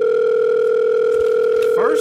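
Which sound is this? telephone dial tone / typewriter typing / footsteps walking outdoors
telephone dial tone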